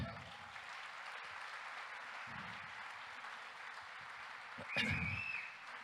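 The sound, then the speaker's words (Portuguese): An audience claps loudly for Jesus in a dense, steady wash of applause that fills the whole clip, swelling briefly near the end with a sharp high whistle or cheer. “para Jesus, eu quero que você aplauda bem forte.”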